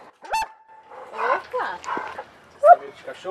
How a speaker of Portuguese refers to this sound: Marcamos a entrevista na casa dos pais dele. Fomos recebidas primeiro por um cachorro